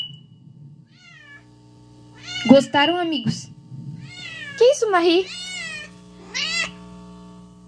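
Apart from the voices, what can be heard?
cat meowing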